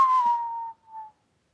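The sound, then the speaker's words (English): A person whistles a short tune phrase imitating a Clint Eastwood western film theme: one long held note, a brief pause, then a shorter, slightly lower note, alone without talking. “That was the suckiest Clint Eastwood was that what that whistle was?”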